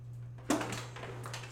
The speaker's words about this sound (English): that is my dog Baxter getting clotheslined as he tried to run out the doggy door with that cone on his neck